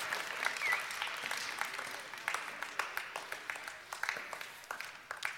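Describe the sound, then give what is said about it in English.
An audience applauds students and leaders who shared their stories, dense overlapping claps at steady strength that gradually thin into scattered individual claps toward the end, with no one speaking. “Let's get one more quick round of applause for our students and leaders that are willing to share.”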